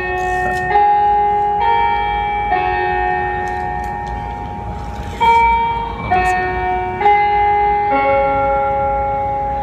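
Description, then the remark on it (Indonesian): An electronic bell chime plays a slow melody of sustained, ringing tones, each note blending into the next. It's loud, with no voices over it. “eh, bel”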